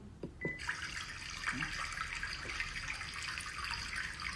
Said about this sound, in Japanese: 湧き水のとこってちょっと急なところとかなだらかなところとかあとは岩が多いとかそういうことでもう全然音が変わっていくのでいろんな場所で撮るんですけれど同じ場所でもねあのなのでちょっとそのね水音の移り変わりも楽しみながら聞いていただければと思います。